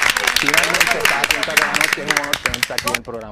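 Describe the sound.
An audience applauds loudly with dense, steady clapping for about three seconds as actor Steven Bauer is welcomed as a guest on a TV show, while a man's voice calls out and talks excitedly over it; the clapping thins out at the end.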